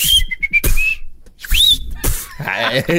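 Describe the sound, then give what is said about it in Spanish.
Loud, shrill human whistling: a run of short piercing whistles and a rising whistled swoop, broken by bursts of noise, with brief voices toward the end. “Chifladores.”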